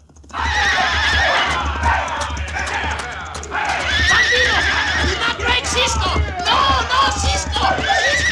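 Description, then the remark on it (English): Horses whinny and neigh loudly again and again over the steady pounding of galloping hooves as bandits ride into a construction camp late at night to drive off the mules, and Louis Merce, having roped Cisco from behind, spurs his horse, with some indistinct shouting mixed into the commotion. “So much so that when the bandits rode into the construction camp late at night to drive off the company's mules, Louis Merce roped Cisco from behind and then put spurs to his horse, intending to drag Cisco to his death.”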